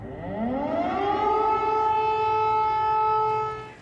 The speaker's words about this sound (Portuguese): as sirenes que alertam para um possível novo ataque voltam a soar